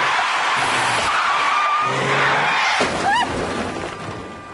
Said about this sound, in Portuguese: E tudo isso por conta de um acidente de trânsito.